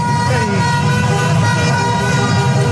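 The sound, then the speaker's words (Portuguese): Car horns honk in a dense, overlapping chorus amid loud crowd shouting and street noise on the main avenue of Uberaba, celebrating a second-round election result, a continuous celebratory din with no pauses. “Os gritos e buzinas são de comemoração.”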